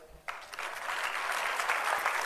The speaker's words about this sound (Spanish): Muchas gracias por su trabajo, de verdad mi enorme reconocimiento y admiración. Quiero también un aplauso.